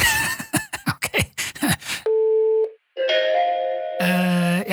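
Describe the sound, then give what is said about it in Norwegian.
A rapid burst of clicks and tones gives way to a steady telephone line tone, which then shifts through a couple of different pitched electronic tones, loud; an incoming call from the HR department's internal number. “Kan være ønskeplate, men jeg har en mistanke om hvem som ringer.”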